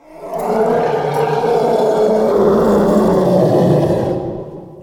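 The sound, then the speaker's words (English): A loud, sustained elephant growl and roar with a rough growling texture, swelling quickly and holding for several seconds before trailing off, with no talking over it; used as a layer in the sound design of the TIE fighter. “Not a lot of people even know elephants make this sound, but they do growl from time to time, and they produce this this insane roaring.”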